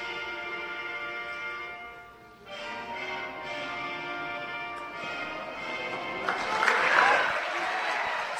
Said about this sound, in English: Standing room only crowd tonight at Lloyd Wolf Gymnasium, and for a good reason. The Reading Red Knights and the Berks Catholic Saints.